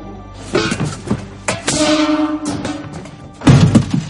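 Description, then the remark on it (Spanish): A metal basin is thrown down in an airplane cockpit, clattering with several hard thuds and a short metallic ring, followed by one more loud bang near the end. “En la cabina, Ben arroja el barreño.”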